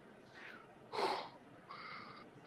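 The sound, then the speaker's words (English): Heavy, raspy breathing behind a mask, a few slow drawn-out inhales and exhales with a hollow, slightly muffled wheeze, heard at the ending of a film. The loudest breath comes in the middle, with nothing else around it. “And we the movie ends with showing all the places where he had been and we hear his breathing”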